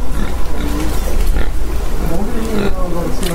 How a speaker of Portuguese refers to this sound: Mas lá tem tanto porco pela rua que uma paulistana como eu chegou a achar que eram cachorros.